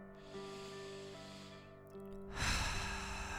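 A slow, deep breath drawn in through the airway, a short pause, then a louder, rushing exhale, over a soft, steady tonal drone, taken during a guided breathing exercise.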